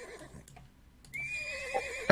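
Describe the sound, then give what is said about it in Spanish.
A horse trotting alone through a silent, snowy city, chewing a little snow, lets out a long, wavering neigh ending in a sharp snort. A few faint hoof-like knocks come before it in an otherwise quiet outdoor space. “Pasa un caballo trotando solo ahí.”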